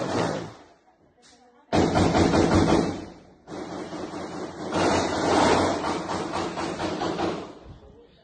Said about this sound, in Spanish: eso son tiros.